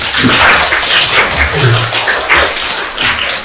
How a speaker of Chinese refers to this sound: 对，那我们把掌声送给两位警察。